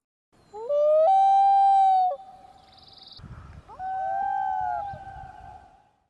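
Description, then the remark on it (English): Coyotes howling at night in the wilderness: two long, wavering, high-pitched howls, the first loud and rising before holding steady, the second a little softer, with faint low rumbling between them and no voices. “And they were just howling and like barking.”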